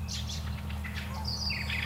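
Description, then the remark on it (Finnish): A swan calling in short repeated cries, some higher and thinner, over a steady low rumble of background noise; no one speaks. “Joutsen.”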